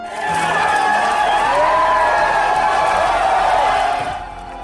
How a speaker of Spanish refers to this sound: La nave aterrizó sin contratiempos y ante la hazaña, luego de un momento de silencio, todos comenzaron a gritar con mucha algarabía y emoción.